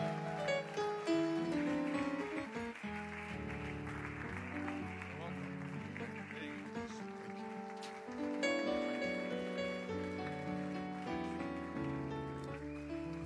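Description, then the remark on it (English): A church audience claps steadily along with loud, sustained singing or music as Pastor Kunle Soriyan is welcomed, the dense crackle of many hands blending into a full, continuous wash of sound. “Let's keep clapping, let's keep clapping, let's keep clapping, let's keep clapping, let's keep clapping.”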